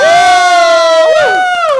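A single voice lets out a loud, drawn-out cheer at the opening of the talk show 疑难杂症小卖所, its pitch holding steady and then swooping down and back up. No clapping can be heard.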